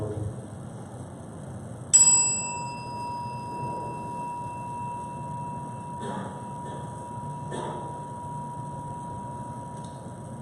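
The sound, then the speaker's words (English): A single bell chime rings out clearly before a time of meditation, its bright tone lingering and slowly fading over several seconds against a quiet, low background hum with a few soft clicks. “As we listen to the chime, let us remember our connection to each other and the world”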